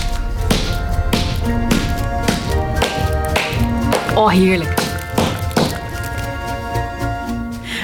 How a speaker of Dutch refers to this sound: Leg hem aan een plankje onder en dan mag je met... Eh, we hebben een hamer en een potlood. Mag je met de hamer het potlood kapot slaan.